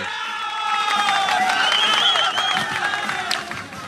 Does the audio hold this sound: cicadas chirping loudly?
no